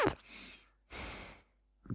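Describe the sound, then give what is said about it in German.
Two heavy, noisy breaths snorted right into a microphone being tested, each lasting about half a second, breathy, followed by a brief onset of another sound at the end. “Schnauf mal.”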